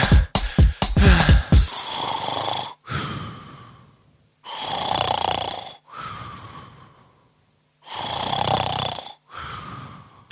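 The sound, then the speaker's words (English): Loud snoring in a slow, steady rhythm, with about five long rasping breaths separated by short pauses, preceded by a quick burst of snorting sputters. “Put your head on on the pillow and have a little sleep.”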